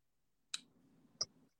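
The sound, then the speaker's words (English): Playing cards being handled in a clumsy shuffle: two sharp, close snaps about a second apart, with a soft low rustle of cards between them and no talking. “It was probably about how you don't know how to shuffle cards.”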